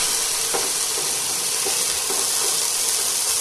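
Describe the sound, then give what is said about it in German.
Food sizzles steadily in a hot pan as it is loosened a little and left to fry, a loud, even crackling hiss that never lets up, with a few soft stirring scrapes mixed in. No one speaks. “So, ein bisschen locker machen und dann braten lassen.”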